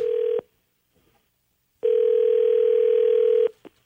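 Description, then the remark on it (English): A phone line ringing during a call to a Tim Hortons, heard as a steady mid-pitched electronic tone that sounds briefly, pauses, then returns for about a second and a half before cutting off. No one speaks. “Why don't we call down to the Tim Hortons we go to”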